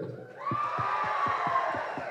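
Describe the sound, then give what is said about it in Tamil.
A loud audience at a film event cheers and roars steadily for director Sukumar and actor Allu Arjun, with a sustained high shout over the din and a regular rhythm of low thumping beats, roughly four per second, running underneath. “so இன்னைக்கு இந்த படம் இவ்வளோ மிகப்பெரிய பிரம்மாண்டமாக இருக்குன்னா அதுக்கு Sukumar sir and Allu Arjun sir ரெண்டு பேருக்குமே பயங்கரமான ஒரு கைத்தட்டல்”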